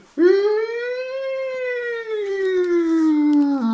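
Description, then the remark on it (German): A single loud siren wail starts abruptly, rises slightly in pitch, then slowly glides back down over a few seconds, with rich harmonics and a faint hiss toward the end. “Spoiler-Alarm.”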